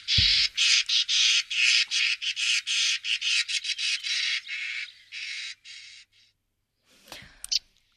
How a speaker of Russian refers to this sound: давайте тогда мы послушаем тоже пение скворцов